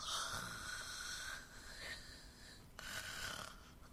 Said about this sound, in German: hören Sie doch mal auf zu schnarchen, Mensch. Der lässt sich wirklich nicht beeindrucken.